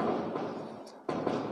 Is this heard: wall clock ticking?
no